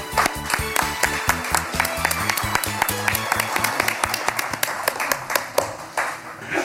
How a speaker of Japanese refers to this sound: どうぞ皆様大きな拍手でお迎えください